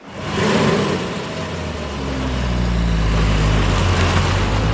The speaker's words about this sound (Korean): 그러자 자동차들은 연구차가 앞을 서며 고요히 굴러 떠나갔다.